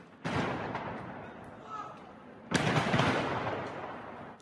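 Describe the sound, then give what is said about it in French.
A stockpile of fireworks exploding and catching fire near homes in the Cronenbourg district of Strasbourg: two sudden, loud bursts a couple of seconds apart, each followed by a dense, sustained crackling roar with a deep rumble underneath. “Une réserve de feux d'artifice a explosé et pris feu proche des habitations.”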